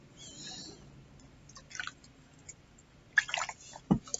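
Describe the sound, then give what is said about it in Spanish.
Someone drinking water: a few wet sips and gulps at irregular intervals, followed by a soft thud as the container is set down. No one speaks. “Eh, con su permiso, tomaré más agua.”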